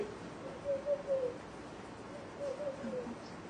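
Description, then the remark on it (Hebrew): A human voice mimics the soft cooing of doves heard on the Sabbath in the Land of Israel, giving a few low, rounded hoots in two short phrases with a pause between, fairly quiet against faint background hiss. “זה צליל של שבת שהיונה, זה כל התור נשמע בארצנו.”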